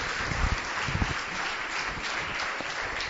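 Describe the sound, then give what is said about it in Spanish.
An audience breaks into sustained applause to welcome newcomers, many hands clapping together in a dense, steady wash of sound without any talking over it. “Vamos un aplauso a ellos de bienvenida o ya.”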